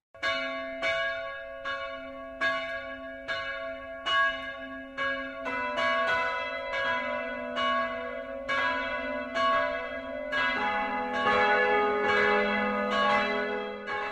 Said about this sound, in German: Es ist 12 Uhr. Das Mittagsläuten kommt heute aus der Evangelischen Kirche von Schwürbitz in Oberfranken.